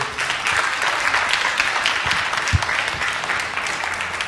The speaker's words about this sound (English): Give him a hand clap if you would.